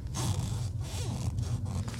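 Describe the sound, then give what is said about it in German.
Shoes squeaking and scraping against the floor in a steady run of rough, rubbing bursts with a few thin squeals mixed in, fairly quiet, and no one talking. “Meine Schuhe quietschen. Warte mal hier. Könnt ihr das hören?”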